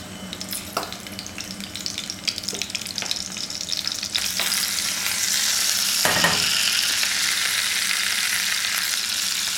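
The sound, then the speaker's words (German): Steady sizzling of meat, slow-cooked overnight in the oven, being browned in a large hot pan, with scattered crackles and clinks early on, swelling into a louder, denser hiss about halfway through. No one speaks. “Jetzt füllen wir die damit? große Pfanne. Die werden wir jetzt noch ein bisschen anklassieren, anbraten.”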